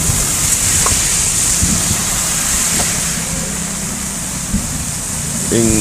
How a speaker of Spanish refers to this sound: Eh, esto, pasó en la 49 Avenida Sur, en San Salvador. Las primeras lluvias. Estuvo temporalado toda la noche. ¿eh? Sí. Se pasó en la madrugada de este día.